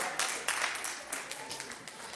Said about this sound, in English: I'm going to close, y'all, because it's 11 o'clock. Everybody stand to your feet, get the Lord a hand clap.